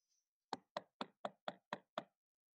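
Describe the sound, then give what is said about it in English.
Seven firm, evenly spaced knocks by the sheriff on the door of the Reynolds house ring out in a steady rhythm, fairly loud, with no voices around them. “The sheriff pulls up to the Reynolds house and knocks on the door, leaving Rachel in the car.”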